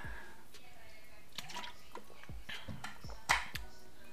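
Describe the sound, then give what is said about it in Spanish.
Close-miked water ASMR sounds: a series of wet drips, clicks and squishy splashes at an irregular pace, mostly soft with one sharper, louder splash near the end. “Alto ASMR de agua.”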